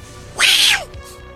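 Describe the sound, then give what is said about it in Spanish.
A single loud, drawn-out cat meow rising and then falling in pitch, lasting about half a second, with no talking around it. “Tiene un gato y no va a dudar ocuparlo.”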